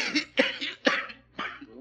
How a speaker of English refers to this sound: poor old fellow. Has got a bad cough. Lung condition, probably.